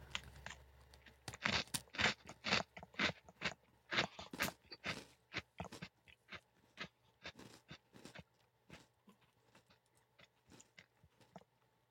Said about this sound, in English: The golden Oreo is a delight. Mm-hmm. Hmm. I would say my my initial impression and bite was very good. I really mm-hmm. liked my first few chews.